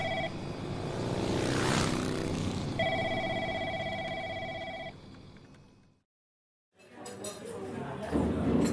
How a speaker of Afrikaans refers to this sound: Ek skakel die ketel aan en maak vir meneer 'n lekker koppie tee.